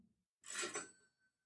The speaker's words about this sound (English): Cash register. Can you guys hear that?